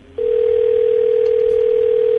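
A steady, unbroken telephone dial tone hums loudly for about two seconds as a call is placed to the Davidoff store in New York, a single flat pitch that starts abruptly and cuts off cleanly, with faint line hiss behind it and no voices.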